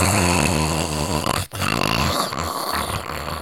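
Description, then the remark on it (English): A voice imitates a woman's harsh, snore-like gasping: loud, rattling breaths with a brief break in the middle, growling and raspy throughout. “like that, like like almost like a snore, but like like I said, a weird, scary type sound.”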